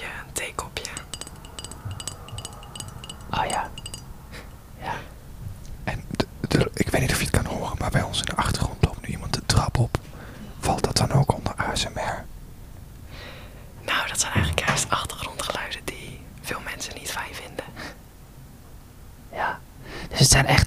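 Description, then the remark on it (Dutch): Soft ASMR tapping on an object, quick light taps coming in irregular bursts with short pauses between them, with a faint breathy, whispery texture underneath. “Nou, je kan ook tikken.”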